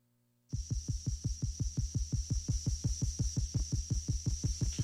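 A throbbing electronic synth-punk intro from a 1978 self-titled album, played on CITR 101.9 FM radio in Vancouver, kicks in after a brief silence: fast, relentless bass pulses about five per second, with a steady high-pitched electronic whine sustained over the top, loud.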